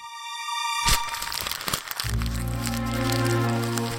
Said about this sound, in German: Romy knüllt den Brief zusammen.